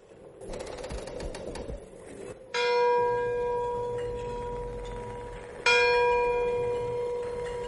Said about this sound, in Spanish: En mitad de la noche escuché unas campanadas, como provenientes de una iglesia, solo que estaba en mitad de ninguna parte y sonaban como si el campanario se encontrase dentro de la casa.